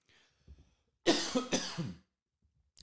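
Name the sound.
coughing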